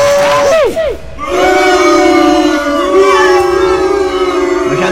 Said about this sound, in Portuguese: Toda segunda-feira tem essas vaias, né? Coincidência, é, é. né?